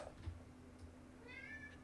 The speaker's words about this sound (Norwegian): Katt. Jeg har en eh, sinnssyk katt som nå endelig har begynt å kjenne seg hjemme.